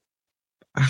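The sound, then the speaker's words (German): A single sneeze: a faint quick intake, then one loud, harsh, explosive burst that ends abruptly, with silence before it and no talking. “Gesundheit.”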